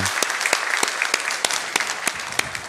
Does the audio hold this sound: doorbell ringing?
no